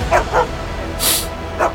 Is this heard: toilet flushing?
no